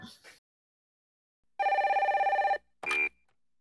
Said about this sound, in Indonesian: Hmm, gimana kalau misalnya kita telpon aja nih, aku telpon kakak yang setahu aku memilih wisuda offline.